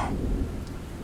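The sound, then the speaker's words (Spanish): A deep, rolling rumble of thunder from a lightning strike that lit up a garden fills the short moment, loud, with a brief crackling burst at the start and faint rain-like hiss beneath. “Un relámpago lo iluminó”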